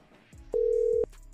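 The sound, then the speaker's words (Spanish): A single steady electronic tone, a WhatsApp internet call's reconnecting beep as the call drops, sounds clearly for about half a second over a low background hum, then cuts off abruptly. “No, ah, no, es que me decía aquí reconectando como si se hubiera caído, como es WhatsApp por internet y eso, pensé que era que se había caído.”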